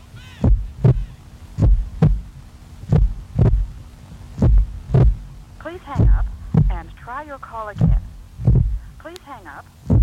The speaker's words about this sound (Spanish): La verdad que final con el latidos ahí.